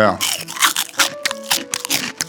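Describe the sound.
Rhythmic crunching like footsteps in snow, roughly eight or nine crisp compressed crunches in quick succession, made as a foley effect for the sound of walking in snow in a cartoon, with some faint voice sounds underneath.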